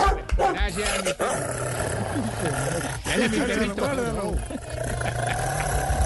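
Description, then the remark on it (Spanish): A dog barks and growls in a rapid, continuous string of harsh, rising and falling yelps, with a steady low rumble running underneath the whole time. “ese perro me lo calla.”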